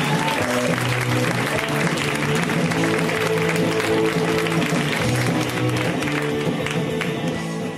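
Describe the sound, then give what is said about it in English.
Steady audience applause welcomes a comedian to the stage at a comedy show in LA, dense and sustained for several seconds at a fairly loud, even level, with faint crowd murmur and a few hints of voices underneath. “Give it up”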